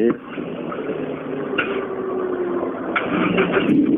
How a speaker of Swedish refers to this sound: Jaha, det är en sugmotor menar Ja.